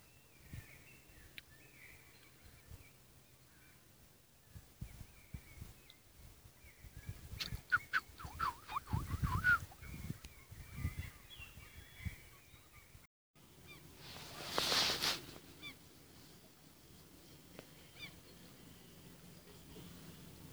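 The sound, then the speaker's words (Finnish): Noisy spring birds call outdoors, with a busy cluster of loud, honking calls midway and another brief burst later, over a steady background hum. No one speaks. “äänten kuunteleminenkin on hieman hankala, kun nämä keväiset tirpanat meluavat”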